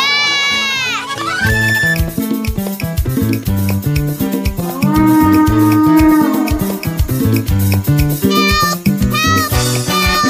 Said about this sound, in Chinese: 那是 Tico 松鼠的声音， 它好像遇上麻烦了。